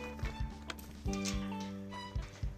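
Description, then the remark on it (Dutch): Several footsteps tap along at an uneven walking pace as someone walks from a dog-walking field to their car, over a steady low tonal hum in the background. “Naar mijn auto lopen.”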